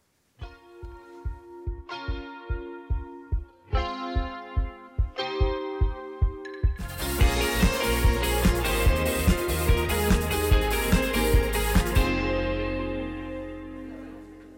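A pop song by a girl group opens with steady, staccato pulsing synth chords, then bursts into a loud, full arrangement with driving drums before ending on a sustained low tone.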